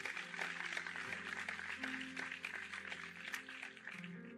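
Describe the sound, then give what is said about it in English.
A church audience claps steadily for several seconds after a sermon, a dense, continuous patter of many hands, with sustained keyboard or organ tones humming underneath. No one speaks. “Let's give the Lord a round of applause.”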